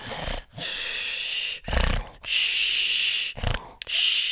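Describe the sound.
A voice imitates a man sleeping beside the listener in the morning, snoring and breathing heavily: several long rasping snores alternating with short sharp inhalations and brief gaps, with no talking.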